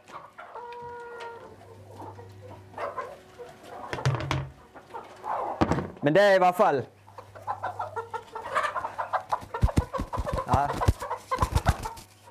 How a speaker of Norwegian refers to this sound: Det er jo nye høns, alle disse her. Og du kan se det på det er de som, de som har reinest bein.